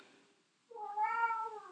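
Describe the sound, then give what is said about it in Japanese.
A cat named Ran-chan gives a single drawn-out meow, a rising then steady harmonic cry lasting about a second, heard clearly on its own after a quiet moment. “今、ランちゃんがツナアルファさんのために泣いてますよ。”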